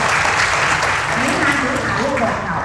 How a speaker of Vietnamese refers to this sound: hãy dành một tràng pháo tay cho chính mình